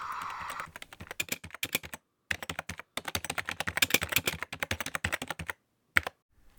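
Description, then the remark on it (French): Rapid typing on a computer keyboard, a dense run of clicking keystrokes with a couple of brief pauses, then a few final taps. No voices. “J'ai enfin pris le temps d'installer euh, un logiciel qui me permet d'avoir le point médian sur mon clavier d'ordi.”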